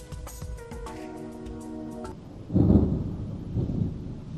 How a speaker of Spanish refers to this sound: Ahí llegó el trueno.